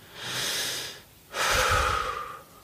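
A single deep breath, a long airy inhale followed by a slightly louder, fuller exhale, with no talking.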